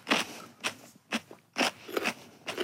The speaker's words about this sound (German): Da hat man noch viel mehr zu kauen. Mhm. Meint man gar nicht, dass es rote Beete ist.